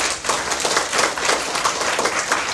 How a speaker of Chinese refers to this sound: 所以呢，借由大家的掌声，给他们一个热烈掌声。